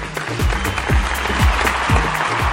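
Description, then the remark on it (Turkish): Steady, dense applause, dedicated to a bus driver, fills the whole clip, with a low swooping tone repeating about twice a second and a constant low hum running beneath the clapping. “Ben ama kocaman alkışı şoför kardeşimize, abimize gönderiyorum.”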